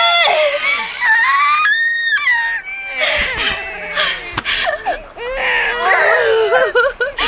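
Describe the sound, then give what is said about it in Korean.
A newborn baby cries loudly and steadily, a high, wavering wail broken into repeated bursts with short gasps between them, filling the whole clip. “까라리야 우는 소리도 우렁차지”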